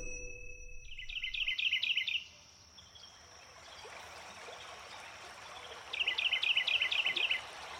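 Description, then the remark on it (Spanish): Steady rushing water from the Gualeguaychú River in Argentina fills the background at the riverbank while a bird sings two clear, bright bursts of repeated chirping phrases, one early and one near the end. “Estamos a la orilla del río Gualeguaychú hermoso paisaje para tomarse unos mates y hablar sobre populismo.”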